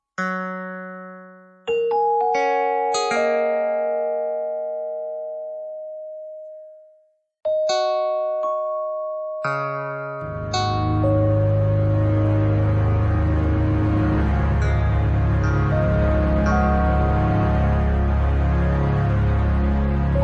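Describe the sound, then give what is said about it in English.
Bell-like electronic tones sonifying edits to an online encyclopedia ring out at scattered intervals, each at a different pitch and decaying slowly. Then a warm sustained synth pad, marking new users signing up, swells in and holds beneath further chimes. No speech. “You get different pitches, different different sound types based on that. And also, when new people sign up to Wikipedia, you get a nice synth pad.”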